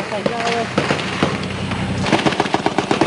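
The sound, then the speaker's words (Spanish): Heavy-calibre fire from an armoured vehicle strikes the smoke-shrouded, burning building of the Guardia de Prevención de la Tablada in sharp, loud cracks, scattered at first and then a rapid, rattling volley near the end, with a voice talking underneath. “Escuchen, todos son impactos directos contra el edificio de la Guardia de Prevención de la Tablada.”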